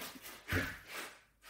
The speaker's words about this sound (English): that's the cat.